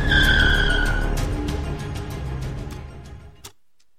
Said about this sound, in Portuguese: Eu ouvi o carro dele na rua. É claro que foi.